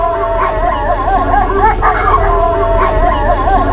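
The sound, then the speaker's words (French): Several wolves howl together in a loud, continuous chorus, their wavering, rising and falling tones overlapping over a low steady rumble, with no talking. “C'est pour cela qu'il utilise son hurlement pour garder contact avec sa meute.”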